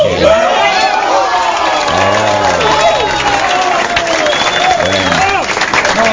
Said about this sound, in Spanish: aplauso, aplauda, no sean zarras. Aplaudan.